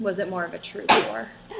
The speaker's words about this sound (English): Bless you. Thanks.